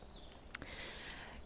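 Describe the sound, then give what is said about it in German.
A few faint, brief bird chirps in a quiet outdoor setting: one short, sharper peep in the middle and thin high whistles before and after, against a soft background hiss. “Ich hoffe auch, dass du äh, das Vogelgezwitscher auch ein bisschen hörst, weil es ist gerade so mega herrlich, wie es um mich herum zwitschert.”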